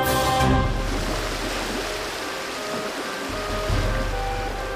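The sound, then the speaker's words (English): Ocean waves wash against a rundown waterfront pier in a steady roar with a deep low rumble, swelling a little near the start and again toward the end, with no voices. “There's nothing here but ocean!”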